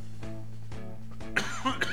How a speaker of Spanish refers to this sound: Ah, pinche tos ya no me dejó, maldita sea.